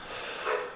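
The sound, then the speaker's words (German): A short, breathy snort from a dog, one quick nasal burst of air, with no talking over it. “oh, das war der Hund.”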